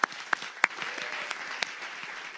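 An audience breaks into applause, a dense patter of many hands clapping at once, with a few sharper, louder claps standing out near the start before the clapping settles into a steady wash.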